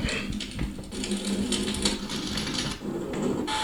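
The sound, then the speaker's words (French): A campfire crackles steadily, with dense irregular pops and snaps over a soft, continuous rushing hiss. No one speaks. “Euh, ça, c'est le feu de camp.”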